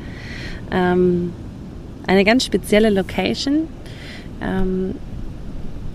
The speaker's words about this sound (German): Heute habe ich dich mal wieder ein bisschen mitgenommen an den Strand. Du hörst das Meeresrauschen im Hintergrund.